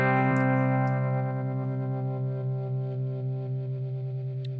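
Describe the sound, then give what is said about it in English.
A sustained electric guitar chord rings out through a modulation pedal set to its pulse mode, its tone gently pulsing and wavering as it slowly decays, with no talking over it. “Uh, yeah, I think that one is Pulse.”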